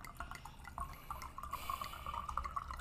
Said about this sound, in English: He's pouring his wine. Give it a second.